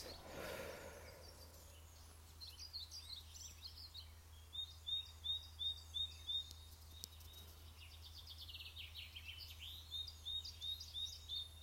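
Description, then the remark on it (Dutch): Birds chirp and sing outdoors in nature in a quiet setting, with one bird repeating a quick series of about six high, bright notes amid softer calls over a low steady background hum. “Ik zit hier in de natuur, je hoort de vogels.”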